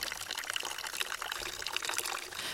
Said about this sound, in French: Et il revint avec un oignon et un pot d'eau qu'il versa dans le chapeau.